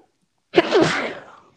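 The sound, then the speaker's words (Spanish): A single loud sneeze bursts out after a moment of silence, with a sharp onset and a breathy tail that fades over about a second. “solo sale cada, cada, semana putos contagios aquí, estornudos aquí, gargajos por allá.”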